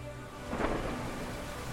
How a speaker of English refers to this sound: On the north coast of France, another man stood, staring into the wind and rain, cursing the storms that kept his ships in the harbour.